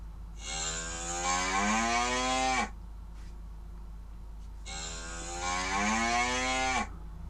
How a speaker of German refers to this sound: Das ist nicht das Pferd, nicht der Dinosaurier, die Kuh. Es ist die Kuh. Genau, das ist eine Kuh.